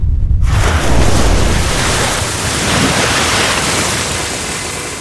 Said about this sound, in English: At the same time the sun is peaking the coastline, we hear a deep rumble in the ocean next to La Rosa Blanca, and out from the sea like a fish jumping from the water, rises the nightingale.